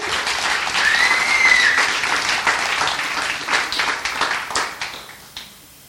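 Loud, dense applause from a crowd at a worship service, thanking those who rehearsed and set up, a steady wash of many hands clapping with a few whistles near the start, thinning into scattered claps before fading out.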